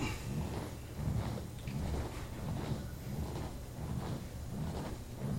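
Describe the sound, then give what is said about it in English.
A rocking chair creaks in a slow, steady rhythm, its low wooden groans repeating roughly once a second at a soft, even volume with no one talking. “Oh, dude, that rocking chair is gonna make me go to sleep. I love that sound.”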